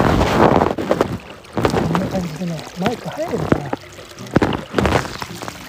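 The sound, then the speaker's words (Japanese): Rushing water from an overflowing, flooded river roars steadily in the background, mixed with gusty wind buffeting the microphone, while a man talks over the noise. “水がね川が溢れてね早くこの作業をしたいんだけど溢れてたら何にもできねえや”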